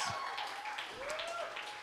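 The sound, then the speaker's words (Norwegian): Steady applause from an audience for the technical crew fills the space, with a whistle gliding through the dense clapping and cheering. “Ja, gi litt applaus.”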